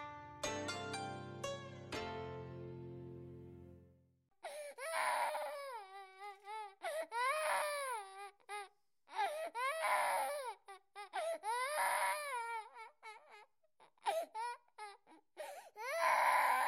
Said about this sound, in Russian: где-то захлебывался плачем ребенок.